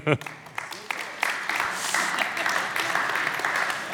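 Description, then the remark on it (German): An audience breaks into applause as three volunteers are called to the front, a dense, steady wash of clapping that stays loud for the full stretch, with a brief burst of sound at the very start. “Unter einem wunderbaren Applaus brauche ich drei Freiwillige.”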